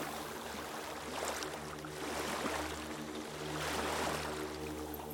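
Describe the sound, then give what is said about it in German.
Continuous rushing of Ganges river water along a slender moving boat travelling west toward Bihar, India, with a steady low motor drone underneath and swells of splashing wash, fairly loud, no voices. “Neben den zahlreichen Hindu-Tempeln, die am Ufer vorbeiziehen, sehe ich auf beiden Seiten des Flusses immer wieder die Stupas der buddhistischen Klöster”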